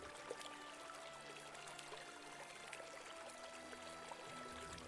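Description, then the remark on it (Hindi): Rushing river water, flowing over the top of an old bridge, streams steadily in a continuous, even wash of noise, fairly soft and distant-sounding, with no voices over it. “नदी की तेज आवाज दूर तक सुनाई पड़ रही थी”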